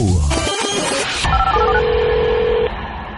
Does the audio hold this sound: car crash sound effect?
no